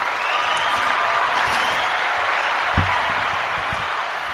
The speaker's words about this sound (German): Also, das hat doch jetzt einfach mal einen Applaus verdient.